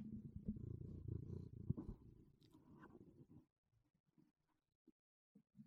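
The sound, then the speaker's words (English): A cat named Ron purrs in a steady, rumbling drone for about three and a half seconds, then fades to a few soft, scattered snuffles and small sounds. “Ron's a cat.”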